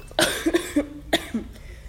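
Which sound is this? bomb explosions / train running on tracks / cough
cough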